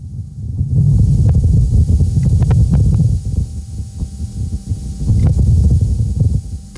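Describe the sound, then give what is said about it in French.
The Perseverance rover driving over rough ground on Mars: a steady, strident low rumble with scattered sharp clicks and scrapes, backed by a breathy Martian wind gust, continuous throughout and with no voices. “Mais cette fois-ci, on entend clairement le bruit strident du rover qui avance sur Mars.”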